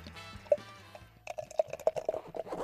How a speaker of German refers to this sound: Das klingt sehr atmosphärisch. Ich, wer jetzt keinen Durst bekommt. Genau, also da hört man schon, wie sich auch dieser wunderbare Schaum entfaltet.